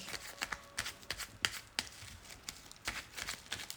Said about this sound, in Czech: Já už se dívám na vaši fotku, míchám u toho karty a my se spolu podíváme, co nám Tarot poví o vašem partnerském životě v letech.